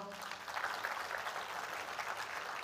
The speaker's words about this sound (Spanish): Amén. Den otro fuerte aplauso al Señor